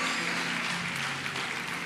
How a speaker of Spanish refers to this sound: Yo quiero que le dé un aplauso fuerte a Jesús.